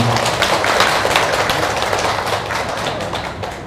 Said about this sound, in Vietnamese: xin à, các quý phật tử hãy dâng cao tràng vỗ tay